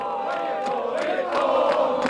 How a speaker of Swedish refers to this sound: Nu är det slut! Yes! Nu är det slut! Och det är ett otroligt åländskt jubel här i Björneborg.